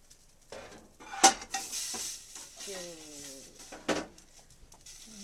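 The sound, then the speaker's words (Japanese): Spare ribs clatter and scrape into a metal pot after the heat is turned off, with a sharp clank near the start and another knock later, over a soft sizzling hiss and brief kitchen handling noises. “火を止めてガツンお鍋お鍋にスペアリーブを入れて”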